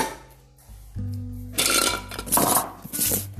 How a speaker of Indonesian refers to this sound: kamu geser dulu ya mangkok